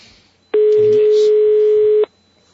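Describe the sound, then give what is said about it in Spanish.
A single steady electronic ringing tone from a telephone line, an unanswered call to Piccadilly to reserve a table, holding one even mid-pitched note for about a second and a half before cutting off, with faint voices murmuring underneath. “Estamos llamando Piccadilly.”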